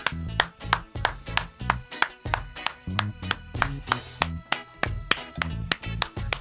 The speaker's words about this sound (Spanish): Así que hay dos personas deprimidas y por eso vamos a iniciar este maga con una ronda de aplausos.